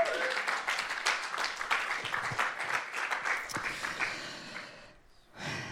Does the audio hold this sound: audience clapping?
yes